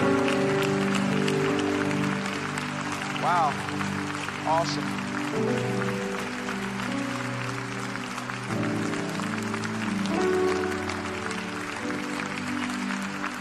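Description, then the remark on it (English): A church audience claps and cheers in a steady, sustained wash of applause that runs the whole length, with music playing underneath and a couple of short spoken exclamations rising over the noise. “Come on, church, don't stop clapping.”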